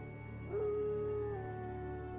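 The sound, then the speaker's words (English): Faint, distant howling of wolves: a long, sustained, slightly wavering tone rises about halfway in and holds to the end over a steady low background hum, with no talking. “And off in the distance, you could hear uh, wolves howling.”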